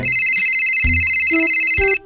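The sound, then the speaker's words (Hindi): A phone rings with a steady, bright electronic tone lasting about two seconds, as a call is placed to the bank and the police about an ATM in Kanpur found open, layered with a few short low thumps and chirps before it cuts off abruptly. No one speaks. “पहले तो शीशा खटखटाए जब कोई जवाब न मिला तो बैंक और पुलिस वालों को फोन घुमाए दिए”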